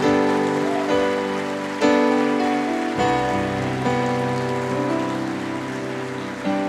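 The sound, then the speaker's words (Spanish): A steady wash of applause, a dense crackle of many hands clapping for God after a reading of scripture, runs beneath sustained keyboard chords that shift every second or so. No one speaks. “Vamos a darle un fuerte aplauso a Dios por estas palabras.”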